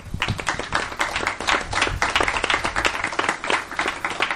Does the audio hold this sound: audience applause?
yes